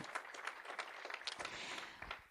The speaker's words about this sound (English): Let's give all of our ladies another round of applause, please, because it took a lot of courage to do that.